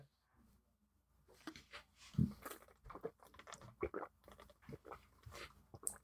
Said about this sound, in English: Did you really make me start recording just so that you could take a fucking long gulp of water?